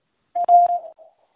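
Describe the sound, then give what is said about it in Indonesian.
A single short electronic quiz prompt tone signalling when to answer, steady and mid-pitched, lasting about half a second with a couple of faint clicks inside it, then trailing off softly. No one speaks. “Silakan jawab setelah nada berbunyi.”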